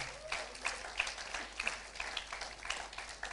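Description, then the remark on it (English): An audience applauds in a steady, dense patter of many hands clapping at once, fairly soft overall with a few sharper claps standing out, and no voices heard. “Oh, if you are clapping, do it better.”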